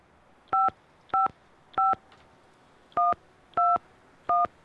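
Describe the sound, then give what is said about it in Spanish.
Six crisp telephone keypad tones beep in a quick, fairly even sequence as a number on an internal line is dialed. Each is a short dual-pitched chirp with brief pauses between, heard alone against faint background hiss. “Tenéis que llamarlo. A ver, llama, llama, mira, yo te voy a dar el número por interno.”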